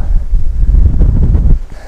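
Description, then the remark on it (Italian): Wind buffets the microphone despite its windscreen at a spot exposed to the wind out in nature, in heavy, rumbling low gusts that swell and fade unevenly, loud, with no voices, easing off near the end. “E purtroppo ho l'antivento ma un po' di vento il senti che sono parecchio esposto, mi sono dovuto mettere su un punto un po' esposto al vento”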